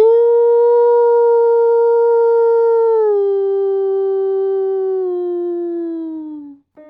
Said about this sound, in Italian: Quel grande ululato svegliò la famiglia fino a quel momento immersa nel sonno. Chi ha fatto entrare in casa il lupo?